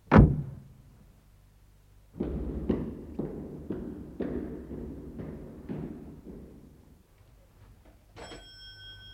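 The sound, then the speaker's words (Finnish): A single thud, a pause, then a steady run of about eight firm, loud knocks on a door, followed by a brief high ringing tone at the end. “Kuka siellä? Pete vain. On tärkeä tieto. Avaa ovi.”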